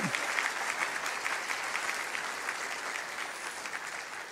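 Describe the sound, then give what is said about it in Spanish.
Sustained applause from a large group given to the Lord, a dense steady wash of clapping that holds at an even level for several seconds with no talking over it. “Aplauda, aplauda al Señor.”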